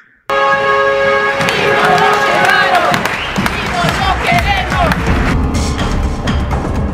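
A protest crowd shouts together for justice, demanding that the missing teacher-training students be found alive. Many voices overlap into a loud, sustained roar with a few strained, higher cries rising above it, starting abruptly and continuing without a break.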